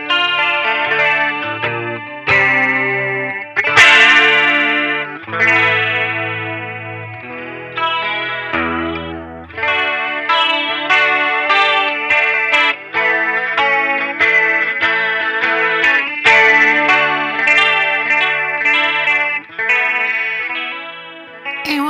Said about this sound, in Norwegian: Ja, så det, det er lyden av eh, koruseffekten. Det er lyden av korus. Rett og slett.